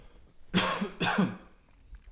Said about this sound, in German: Entschuldigung, ich muss auch husten.